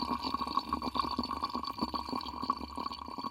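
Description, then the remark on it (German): Bubbling and fizzing of sparkling natural mineral water, a dense, continuous crackle of tiny pops over a low steady hum, with no voices. “Man hört das Wasser sprudeln.”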